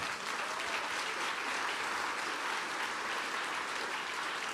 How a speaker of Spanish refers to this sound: Dan un fuerte aplauso al Señor.